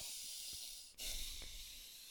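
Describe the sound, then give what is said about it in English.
Hissing airflow of someone breathing through the nose, one long breath followed by a brief pause and another steady breath, with no talking. “Can you breathe through your nose?”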